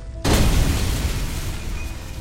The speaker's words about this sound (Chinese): 就在距离办公室还有一层的时候，最后一颗炸弹爆炸了，巨大的气浪把易兴掀翻在地上。